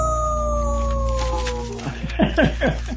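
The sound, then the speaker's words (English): A dog named Kaya howls over music, its long wavering cry rising and falling, then breaking into a few shorter yipping howls near the end. The music plays steadily underneath, moderately loud. “I think Kaya likes that one as well.”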